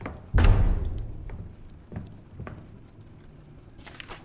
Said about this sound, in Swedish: Dörr smälls igen.